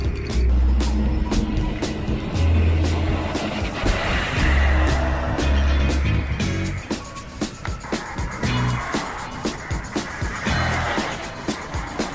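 distant motorway traffic

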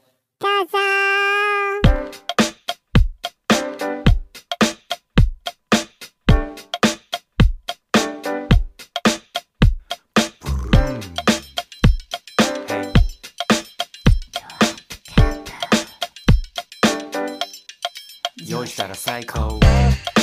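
a song being played

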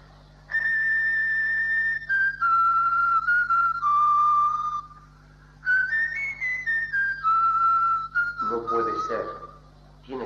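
person whistling a tune

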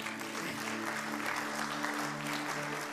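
audience clapping

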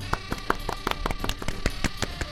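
hands clapping

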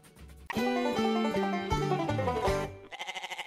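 goat bleating

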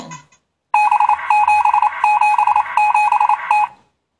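morse code beeps

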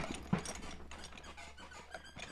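squeaking chair

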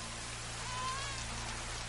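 rain falling

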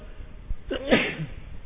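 a sneeze

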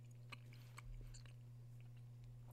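person chewing food

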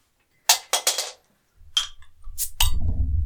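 beer bottles clinking

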